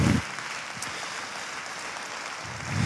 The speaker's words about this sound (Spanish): Y todos dicen, un aplauso a Dios si tú crees esto.